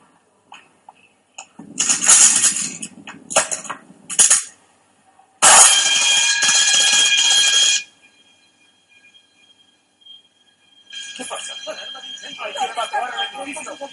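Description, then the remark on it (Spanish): A loud, harsh fire alarm rings in a hospital in a steady burst lasting a couple of seconds, preceded by shorter jangling bursts, with voices talking around it and afterward. “Señor director, Alarma de incendio. Los pacientes deben ser evacuados.”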